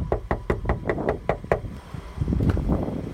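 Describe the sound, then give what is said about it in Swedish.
Rapid knocking on a factory door in the small village of Glumslöv in northwestern Skåne, Sweden, on an overcast, raw morning, 24 January 2018, filmed with a mobile phone camera: about eight sharp raps in a quick steady rhythm, fairly loud, followed by a muffled rumble of movement and background noise. “En mulen och rå förmiddag knackade på dörren till en fabrik i det lilla samhället Glumslöv i nordvästra Skåne.”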